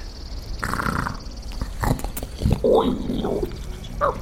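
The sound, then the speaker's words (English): Deep, rumbling breaths from a huge creature in a cave, slow snoring inhales and exhales with a growly, purring texture that echoes through the cave. No one speaks. “But, but I, I, I thought the breathing was supposed to have stopped when the great serpent left the cave.”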